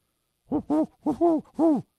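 An owl hoots five times in quick succession, with clear, rounded hoots in a short rhythmic series, heard alone without any talking.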